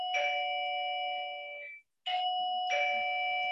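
A doorbell chimes with bright, sustained electronic tones that ring out and fade, then after a brief silence it sounds again with two more chimes. No one speaks.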